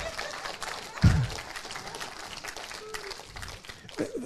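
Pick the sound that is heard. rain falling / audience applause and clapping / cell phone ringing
audience applause and clapping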